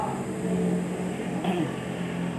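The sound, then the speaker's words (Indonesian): A motorcycle engine runs loud and steady, with a low throaty drone and a slight rev or pitch rise partway through; no one speaks. “motornya suaranya buantre ya”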